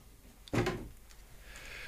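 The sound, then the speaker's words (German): A package of chocolate snacks with lots of cocoa is torn open, one sharp rustling rip followed by softer crinkling of the wrapper. No one speaks. “Oh, mit viel Kakao, die machen wir auf.”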